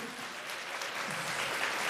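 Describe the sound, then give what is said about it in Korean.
Steady applause from a crowd for a band that has just performed, a dense continuous patter of many hands clapping at an even level throughout, with no talking over it. “다시 한번 박수.”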